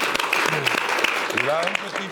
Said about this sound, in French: On peut ah, l'applaudir bah, bien fort